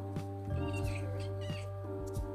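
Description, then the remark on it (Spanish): A female pet cat, Isis, makes short vocal sounds, a few brief calls spaced over a couple of seconds, over a steady low background hum with no talking. “Aló, mi gata, Isis.”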